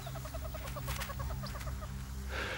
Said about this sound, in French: Le drongo va pousser un cri d'alarme dans la langue de sa victime pressentie et aussitôt, sa victime se précipite pour se mettre à l'abri, abandonnant son repas et le drongo le lui dérobe.